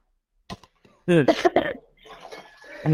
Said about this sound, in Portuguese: Eu tava com gripe. Momento tosse.